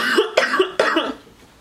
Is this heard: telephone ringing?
no